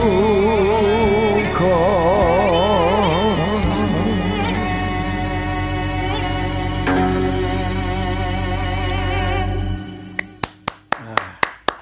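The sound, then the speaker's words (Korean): Korean traditional music played on gayageum and ajaeng: a wavering, heavily vibrato bowed ajaeng melody over steady low sustained tones, which stops abruptly and gives way to a few sharp, plucked gayageum strikes. “가야금 아쟁으로 시작해서 가야금 아쟁으로 끝나요.”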